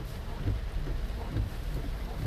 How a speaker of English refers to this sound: It is raining cats and dogs out here, ladies and gentlemen. Cats and dogs, man. Cats and dogs.